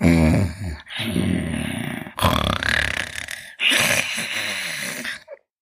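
A voice imitates the devil's loud snoring, strong enough to make the windows tremble: four rough, rasping snorts in steady succession, heavy with a guttural rattle, each breath drawn out for about a second.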